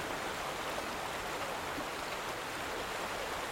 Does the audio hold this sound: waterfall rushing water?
yes